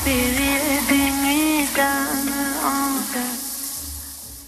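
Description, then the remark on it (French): A steady, hissing rush of shower water runs throughout in a bathroom while a woman sings a sustained, wavering melody over it as she showers. “Dans la salle de bain, nous écoutons une chanteuse qui chante sous sa douche.”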